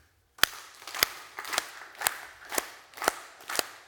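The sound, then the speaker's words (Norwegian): A group claps hands to imitate a tropical storm: about seven loud, sharp claps land roughly every half second over a steady patter of softer clapping, like heavy rain. “Og så lager vi en tropisk storm.”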